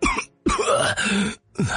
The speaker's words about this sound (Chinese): 这个时候，王奎突然一阵剧烈的咳嗽，清醒过来。